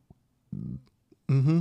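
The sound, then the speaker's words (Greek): A low, croaky burp rumbles out, followed moments later by a louder, more drawn-out belch with a voiced, throaty tone. “ρεύτηκα, συγγνώμη, ήθελα να κλάσω.”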